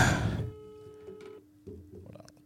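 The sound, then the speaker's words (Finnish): A brief rustling burst, then a steady electronic ringing tone as an outgoing phone call rings unanswered on the line, a short pause, and the tone resumes at moderate volume. “No niin, mutta joo, se vastaa. ei se vastaa.”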